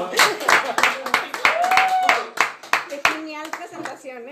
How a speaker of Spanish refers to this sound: Aplausos.